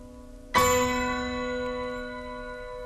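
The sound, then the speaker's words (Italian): A single loud, deep bell toll, one of the final three tolls closing an orchestral piece, rings out over a soft sustained orchestral chord, its rich metallic overtones lingering and slowly fading. “E le campane sigillano l'identità tra amore e morte.”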